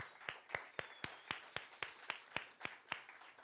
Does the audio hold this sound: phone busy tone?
no